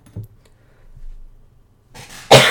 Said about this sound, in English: I have there a cough, so I apologize for my coughing during this episode.